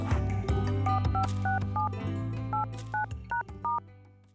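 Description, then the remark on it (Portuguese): A string of about ten short telephone keypad tones beeps in an uneven rhythm as a phone number is dialed to call a writer and illustrator in Minas Gerais, Brazil, clear, over a low steady hum with no one speaking. “Peguei o telefone dela para conversar um pouco.”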